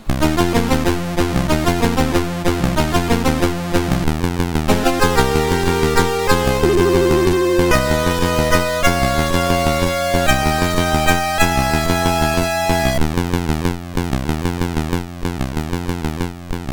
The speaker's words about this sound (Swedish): Titellåten, en liten kort 15 sekunders sak, låter så här på 64.